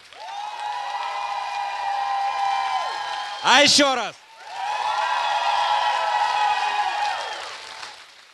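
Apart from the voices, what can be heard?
thin audience applause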